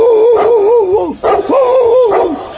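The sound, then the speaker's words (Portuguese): A dog gives two loud, drawn-out cries with a wavering pitch, more a howling bark than short woofs, separated by a brief pause, with no one talking. “cachorro fedegou!”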